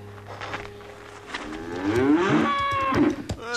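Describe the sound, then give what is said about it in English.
A female calf, now up on her feet, lets out a long, rising moo that swells and wavers before trailing off, loud, with a low steady hum running underneath. “The, uh, the calf's on her feet.”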